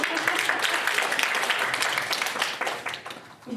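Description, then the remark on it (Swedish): A burst of applause from a crowd, many hands clapping steadily for a few seconds, dense and even throughout before tapering slightly at the end. “En applåd”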